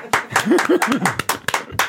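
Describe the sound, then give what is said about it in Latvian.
A handful of sharp claps ring out in an uneven rhythm, applause for the author of the most sonorous riddle, with a voice murmuring or laughing underneath between them. “Strasts! Oh, aplausos! Viņam arī vajag!”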